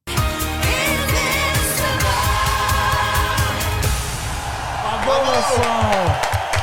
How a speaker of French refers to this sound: J'ai laissé les applaudissements enregistrés parce que j'avais peur que vous m'applaudissiez pas.